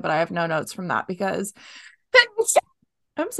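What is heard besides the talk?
sneeze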